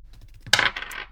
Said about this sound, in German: Also, wir beginnen wie immer, und das wird sich, glaube ich, auch nie ändern, äh, mit zwei Würfen auf dem W6, um das hohe und das niedrige Attribut auszuwürfeln. Das heißt, würfel einmal ein W6.